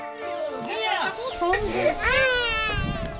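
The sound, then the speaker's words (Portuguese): A baby grandson cries loudly and continuously in wailing, rising-and-falling bursts in the middle of an interview, crying because he is hungry, with faint background voices and room noise underneath. “No meio da entrevista dele, o neto chora.”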